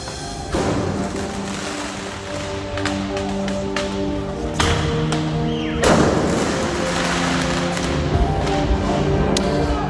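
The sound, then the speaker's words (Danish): Several loud fireworks bangs, set off by demonstrators during riots in Marseille, France, burst out at irregular moments, each with a crackling decay, over a constant dense, noisy outdoor din with a droning hum underneath. “I går var der blandt andet optøjer i Marseille, og her antændte demonstranterne fyrværkeri.”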